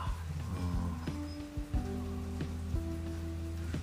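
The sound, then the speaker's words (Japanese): Steady rain patters on a hard surface on a cold day, a continuous wash of drops with occasional louder splashes, and a low hum running underneath. “あいにくの雨だよ”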